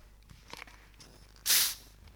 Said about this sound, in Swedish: en nyöppnad eller relativt nyöppnad Eh, kola den kommer ju pysa något bedrövligt. Så då, är ju problemet att risken är att det här det, det blir alldeles eh, förfärligt.